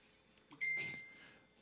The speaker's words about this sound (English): Oh, sorry, my phone going off?